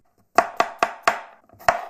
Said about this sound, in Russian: Затем нам нужно два ломтика имбиря. Его тоже мелко нарезать.